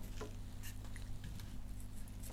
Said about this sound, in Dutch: Ik ga even aan de peren die ik in de la heb, even, even voelen.